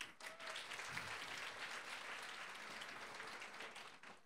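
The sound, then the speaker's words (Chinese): A crowd applauds steadily for about four seconds, a dense, even wash of many hands clapping at once with no voices over it, holding at a constant loudness before easing off at the end. “对，好，来给你们一个掌声。”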